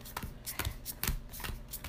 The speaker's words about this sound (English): And no, I'm, I'm shuffling. Stacking your deck.